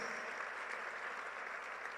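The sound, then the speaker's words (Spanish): An audience claps steadily, giving a loud round of applause to the Lord, a dense wash of many hands at an even, sustained loudness with no voices rising above it. “Vamos a darle un aplauso al Señor bien fuerte porque Él nos da sus promesas.”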